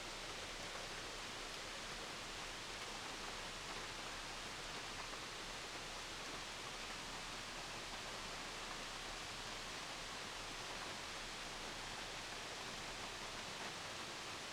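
Steady rushing water from a waterfall, a dense, unbroken hiss that holds constant the whole time with no pauses or voices, soft and evenly spread like a continuous torrent.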